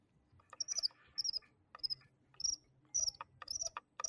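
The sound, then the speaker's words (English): A squeaky computer mouse scroll wheel turning, giving about seven quick bursts of high, chirping squeaks that sound much like crickets, fairly quiet with no talking. “I'm gonna give you guys a little ASMR right now. My oh no, my squeaky mouse wheel.”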